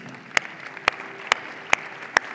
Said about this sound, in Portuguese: Queria que a gente desse uma salva de palmas para esses líderes.